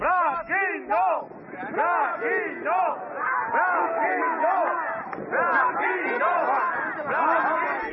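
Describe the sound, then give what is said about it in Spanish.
A protest crowd of citizen groups in the street in Spain, in the debate over hydraulic fracturing, shouting and chanting together, a dense, loud mass of raised voices with rising and falling cries, sustained throughout with no single speaker standing out. “El debate está en la calle, en decenas de plataformas ciudadanas que gritan”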